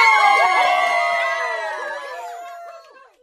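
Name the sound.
applause and cheering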